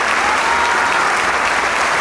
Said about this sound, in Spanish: Y el aplauso no deja duda de ello. Sin lugar, sin lugar a dudas. El aplauso empieza a ceder poco a poco, los músicos se abrazan, se saludan, se felicitan